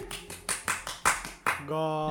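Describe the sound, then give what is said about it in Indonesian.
Around eight quick hand claps in a steady, slightly uneven rhythm, sharp and moderately loud, followed by a voice starting to speak at the end. “bukan itu bukan tepuk-tepuk yang itu ya itu tepuk tangan beneran ya”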